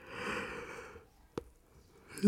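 A drawn-out, breathy yawn from a woman lying on her bed in the sunshine, with a faint voiced tone lasting about a second, followed by a small click and a brief quiet pause before a sound begins again at the end.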